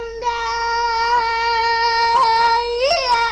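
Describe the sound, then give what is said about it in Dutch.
A single untrained singer glides from low to high tones, holding a high, sustained sung tone, then the voice cracks audibly twice near the end as it flips between registers in a voice break. It is steady in loudness, with no other sounds. “We noemen dat ook wel een stembreuk.”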